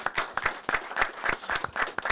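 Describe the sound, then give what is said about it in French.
An audience applauds steadily, many hands clapping in a dense, crackling wash with a fairly even rhythm and moderate loudness, no voices standing out. “On applaudit”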